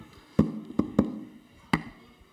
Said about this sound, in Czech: Když takhle položíš ten mikrofon, tak to ťukne. A když je položí takhle, tak míň. No jo, ťuká.